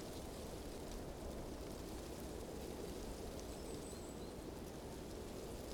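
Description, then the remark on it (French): Quiet outdoor ambience of nature in winter at the hamlet of la Bonne: a soft, steady rustling hiss that never rises or falls, with a faint high call briefly surfacing midway. No one speaks. “un silence plein du bruissement de la nature en hiver.”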